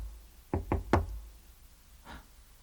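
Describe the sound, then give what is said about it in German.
Three quick knocks on the door of room 2.14, at the end of a long, deserted corridor, in a fast, even sequence, the third slightly louder, followed by a single softer knock after a short pause. No voices accompany them. “Zimmer 2.14. Hm. Ich, ich klopfe mal, ja?”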